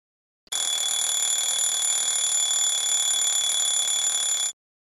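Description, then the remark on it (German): A loud, continuous metallic alarm clock bell rings steadily for about four seconds, bright, then stops abruptly. No voices are present. “Der Wecker klingelt.”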